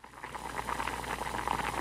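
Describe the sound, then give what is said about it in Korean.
A pot of seafood stew (haemultang) bubbles vigorously, a steady hissing rumble with rapid popping bubbles that swells slightly and holds for the whole moment, with no voices. “잠시 후 아이들에게는 해물탕을 팔팔 끓이는 동안 씻으라고 하고 밀폐 용기를 찾았습니다.”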